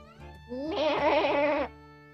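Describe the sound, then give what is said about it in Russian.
A single sheep bleats once, a loud, quavering call lasting about a second, with a faint low hum in the background and no talking. “Сначала он позвонил барашкам-строителям, чтобы они поставили ему фундамент.”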